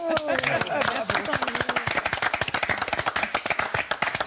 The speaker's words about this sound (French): On vous applaudit longtemps.